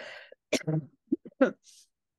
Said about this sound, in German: Ah, sorry, ich muss kurz husten. Sorry, ich bin noch ein bisschen verkühlt.